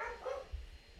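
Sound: dogs barking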